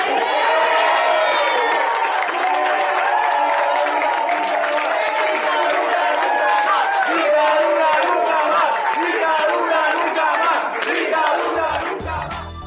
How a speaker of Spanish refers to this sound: Bueno, escuchábamos al final de este audio la, celebración, De quienes estaban así presentes en la sala del juzgado,